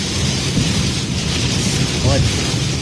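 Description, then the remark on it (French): Heavy rain pounds steadily on the front windshield of a storm chaser's car in Québec, on a live Extreme Chase Québec stream, driving toward a black cloud; a dense, loud, continuous hiss and drumming with no letup, while low rumbling noise churns underneath throughout. “Ça tombe. Ça tombe assez solide.”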